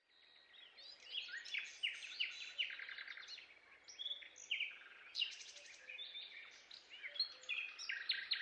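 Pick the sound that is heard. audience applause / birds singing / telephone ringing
birds singing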